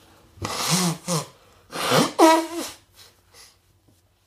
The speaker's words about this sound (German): und ich muss mir kurz die Nase putzen. Das ist auch was Tolles Neues, was es zu erzählen gibt. Mein Körper hat offenbar entschieden seit ein paar Wochen, dass Heuschnupfen eine geile Sache wäre.